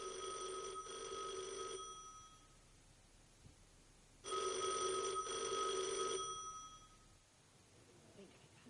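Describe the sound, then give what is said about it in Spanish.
A convent telephone rings in an office at dawn, in two long bursts, each about two seconds of rapid metallic trilling with a short pause between. Faint background noise fills the gaps. “Al amanecer, el teléfono del convento suena en un despacho.”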